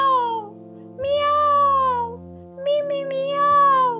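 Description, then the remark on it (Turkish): A voice imitates a cat, giving a few drawn-out, wavering meows in close succession. The calls are loud, with short pauses between them and no other sounds. “Ne yapıyorsun öyle yerde Maya?'' diye sordu. ''Miyav!''”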